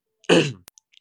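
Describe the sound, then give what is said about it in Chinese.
During a livestream, a host who choked while talking gives a single harsh throat-clearing cough, loud and raspy with a voiced growl, lasting about a third of a second, followed by a sharp click and a few faint ticks. No one speaks. “我可能是第一个在直播间里敢这样咔咔咔咳嗽，又喝水，又在调整的人，就啊，好尴尬呀！”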